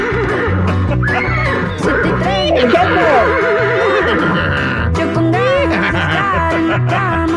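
A horse neighs loudly in several shrill, quavering whinnies, heard over busy, steady music that plays the whole time.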